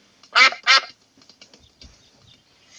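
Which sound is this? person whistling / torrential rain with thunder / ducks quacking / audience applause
ducks quacking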